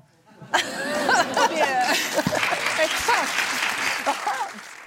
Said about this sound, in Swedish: Varför applåder?